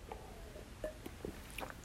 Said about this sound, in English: As I take a sip of water here